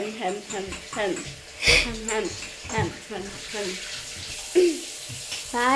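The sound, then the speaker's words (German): Tap water runs steadily beneath ongoing conversation, a continuous hiss with brief splashes as an old drinking glass is rinsed out under the stream. “dich mal mit dem Auswaschen”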